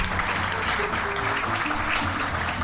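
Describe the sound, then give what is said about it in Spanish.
A crowd at Club Victoria in San Andrés de Giles applauds Pablo Logioco, who runs the sound, steadily: a dense, even wash of many hands clapping at fairly loud volume throughout, with no pauses or talk breaking through. “Quisiera ya pedirles un aplauso para Pablo Logioco que hace el sonido.”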